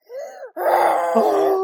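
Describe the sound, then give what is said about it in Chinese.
A voice imitates a lion's roar: a short rising moan, a brief break, then a long, loud, harsh growling roar that holds steady until the end. “大吼一声， 假装我是狮子。”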